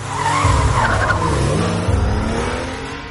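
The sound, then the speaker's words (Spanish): In a film scene, a car engine roars steadily while tires skid and screech as Chris drives away from a burning house with Georgina in the passenger seat, a loud continuous rumble with harmonic engine tones that shift in pitch as the vehicle pulls away, no voices present. “Chris conduce el coche.”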